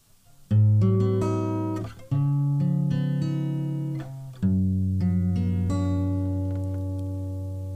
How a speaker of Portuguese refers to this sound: Jingle.